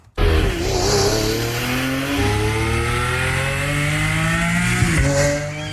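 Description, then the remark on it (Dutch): An Italian Lamborghini sports car engine, not a Formula 1 car, roars loudly and steadily, its pitch climbing through several revving surges, with a brief dip and rise near the end; no voices are heard. “Maar dit is het ingetogen woede eigenlijk van een Italiaanse Lamborghini.”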